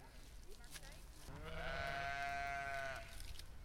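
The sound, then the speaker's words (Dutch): A Kempen sheep bleats in a long wavering cry lasting over a second, fairly loud, with a faint rumble of a flock of 250 Kempen sheep grazing outdoors in the Westerwatering district of Zaandam, Zaanstad, Netherlands, on a summer morning. “250 Kempische schapen in Zaanstad.”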